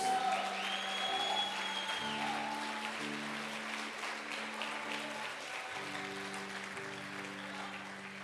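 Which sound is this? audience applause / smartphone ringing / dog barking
audience applause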